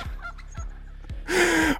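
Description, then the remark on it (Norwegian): A person imitates a hen: three short, low clucks at an even pace, then a loud, drawn-out squawk at the end, clear with no other talking. “Ja, jeg er veldig god på høne jeg, og ape.”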